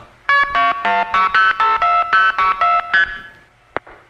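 A quick, even run of about ten beeping telephone signaling tones as a call is switched in Youngstown, Ohio, onto a trunk line to Canton, followed by a short pause and a sharp click-like blip of the handshake from Canton.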